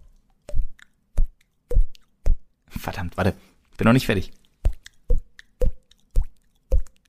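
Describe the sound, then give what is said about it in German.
A voice imitates water drops with a series of short mouth plops at a fairly steady rhythm, briefly interrupted by a spoken remark before the popping resumes. “Zum Schluss noch ein Wassertropfen.”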